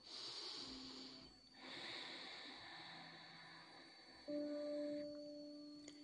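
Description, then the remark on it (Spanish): A deep, airy breath drawn in, a brief pause, then a long slow exhale over a soft sustained background drone with faint steady tones. “Respiro profundo.”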